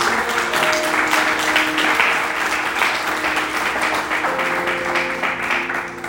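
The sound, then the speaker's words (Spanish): Loud, sustained applause from a crowd, given to God, a dense continuous patter of many hands clapping at once with a few faint tonal notes running underneath, holding steady for several seconds. “Del fuerte aplauso, por favor, a nuestro Dios.”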